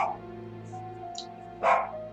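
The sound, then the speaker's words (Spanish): A small dog lets out a single sharp bark after a stretch of quiet room tone with a steady low hum; a fainter yip may sound at the very start. “Ahí está ladrando Lucas Mamarre.”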